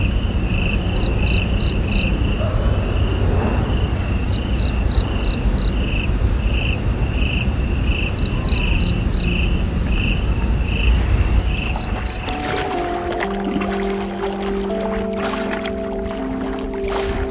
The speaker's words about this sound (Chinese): 我正位于大凉山的琼海边上，呃，现在是晚上的十二点五十，大家可以听到周围有很多这个蝉鸣，嗯，给大家再听一下